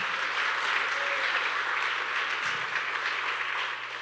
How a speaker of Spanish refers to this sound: Denle otro aplauso fuerte al Señor.